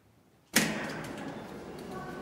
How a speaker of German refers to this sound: Tür schließt. Viele Leute regen sich immer über die Langsamkeit der Fahrstühle auf. Das ist auch Barrierefreiheit. Nicht jeder kann schnell reagieren oder schnell ein- und aussteigen.